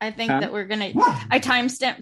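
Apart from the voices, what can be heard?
dog barking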